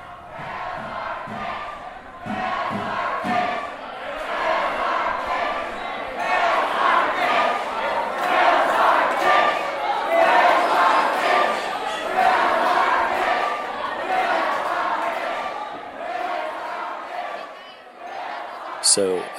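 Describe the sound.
Hundreds of people chant and shout together at Ida Noyes during the List release around 11:30 p.m. on a Wednesday, a dense, steady roar of many voices that holds for nearly twenty seconds with little letup, swelling slightly in the middle before tapering toward the end.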